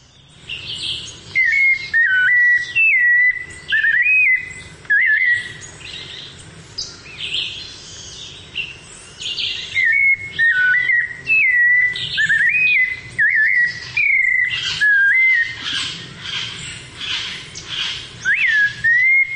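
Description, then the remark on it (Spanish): A thrush perched on a branch about 4 to 5 metres from a tripod-mounted microphone sings clear, whistled phrases with rising and falling notes, repeating them in short bursts with brief pauses, accompanied by softer chirps and no talking. “Se paró en una rama y mm, me regaló el sonido que les voy a mostrar ahora.”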